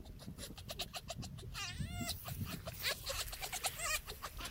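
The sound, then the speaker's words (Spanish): Fox vocalizations: a run of high, wavering, whiny yelps and squeals, some rising and falling in pitch, repeated in quick succession over a rough, noisy background with no talking. “les paso audio de zorritos para que vean eh, qué dicen los señores.”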